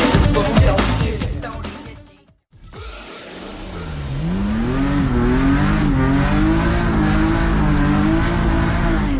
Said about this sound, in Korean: 독일 민헨에 도착했습니다. 거친 엔진음이 온몸으로 느껴지는 이곳 독일을 대표하는 한 자동차 회사 드라이빙 센터 쏜살같이 달리는 자동차들이 급격하게 방향을 바꾸면서 곡선 주로를 질주하는 드리프팅 드리프트 체험이 한창입니다.